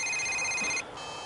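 A telephone rings with a steady, high electronic trill that cuts off abruptly just before a second passes, leaving faint background noise. Fairly loud, with no talking.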